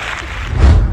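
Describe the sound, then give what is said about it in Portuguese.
A brief, loud burst of applause, with dense overlapping claps forming a steady wash of noise that swells slightly toward the end. No voices can be heard. “Palmas para Jonathan Alves, cara.”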